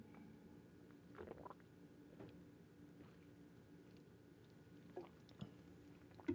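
Quiet drinking of water: a few soft wet gulps and swallows spaced out over several seconds, with faint mouth and throat noises in between and no talking.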